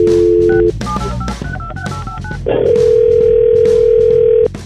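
A steady telephone dial tone gives way to a quick run of short, varied-pitch keypad beeps, then a loud, continuous ringback-like tone holds for about two seconds before cutting off, as a call is dialed for The Neighbor Dispute segment on the Froggy 92.9 morning radio show.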